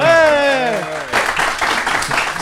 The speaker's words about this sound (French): Montrez que vous ah. là, applaudissez un peu là au bistrot Malherbe. Montrez qu'on est en direct. Est-ce qu'on peut avoir un bel applaudissement au bistrot Malherbe